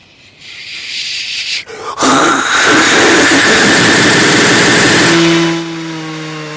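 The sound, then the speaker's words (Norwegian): After a brief quiet start, a small engine suddenly revs up into a loud, buzzing roar that holds for about three seconds, then drops back to a lower, steady idling hum. No talking. “så hører du akselerasjonen min. Og jeg akselererer fra 0 til 200.”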